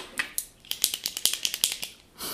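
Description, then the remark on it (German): A quick series of sharp, small plastic clicks, roughly a dozen in a fast uneven rhythm, fairly quiet, from a ballpoint pen being clicked over and over. “Also kein Kugelschreiber, der klickst die ganze Zeit”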